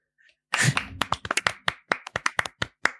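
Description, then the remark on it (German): Sharp hand claps ring out in a quick, slightly uneven series of about a dozen bright smacks, starting with a brief burst of noisy applause before settling into separate, distinct claps. “So, in dem Applaus darfst du jetzt abreisen.”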